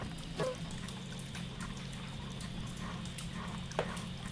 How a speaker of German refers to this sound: Er drückt das iPhone auf die leiseste Stufe hoch und hält es sich gegens Ohr. In dieser Lautstärke hören sich die Explosionen und Schüsse an, wie Gewitter mit vereinzelten, dicken Regentropfen.